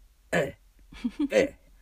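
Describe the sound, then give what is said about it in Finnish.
A person imitates a hungry baby's low, grumbling cry: one short throaty burst, a brief pause, then a longer croaky, rumbling vocalization, fairly loud. “itki silleen matalalta mölisevällä äänellä.”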